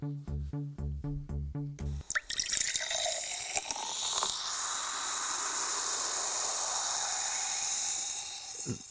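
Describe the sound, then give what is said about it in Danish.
A short burst of rhythmic tones gives way to a sharp hiss as cola is poured, followed by a steady fizzing and bubbling that continues to the end. “Det var, det, det var en cola.”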